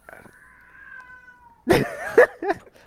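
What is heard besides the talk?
cat yowling loudly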